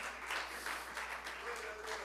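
An audience applauds in praise of God, a dense, steady wash of many hands clapping that keeps an even loudness throughout, with faint voices mixed in underneath.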